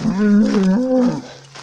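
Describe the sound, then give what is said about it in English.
A bull in a herd following along a fence lets out one loud, drawn-out moo, a deep throaty bellow that wavers in pitch before trailing off into quieter background noise. “There's a herd of them uh, following me along the fence, and there's a bit of the old mooing going on.”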